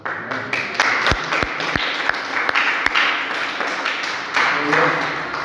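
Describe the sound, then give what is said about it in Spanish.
An audience applauds the Holy Spirit steadily for several seconds, a dense wash of many hands clapping with a few sharper, louder claps standing out, and some voices mixed in. “¿Quién de ustedes le quiere un aplauso al Espíritu Santo de Dios?”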